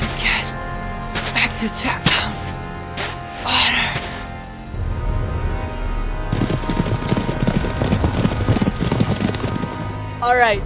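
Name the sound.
horses approaching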